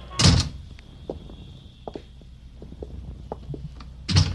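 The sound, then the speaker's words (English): The door of a flat off a drafty hallway closes with a loud, solid thump near the start, followed by faint knocks and shuffling, then another heavy door thud at the end. “Anyway, it's cuddlier with the door closed, huh, man?”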